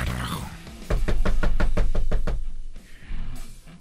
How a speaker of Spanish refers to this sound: Toque la puerta.